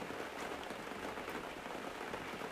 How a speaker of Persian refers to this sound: بس گوارا بود باران به چه زیبا بود باران